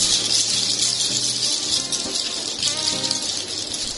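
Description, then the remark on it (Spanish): A dense, continuous rattling clatter, like teeth chattering and gnashing rapidly, fairly loud, with a low murmuring hum running beneath it throughout. “Un crujidero de dientes entre sus piernas, y el susto le cortó el abrazo.”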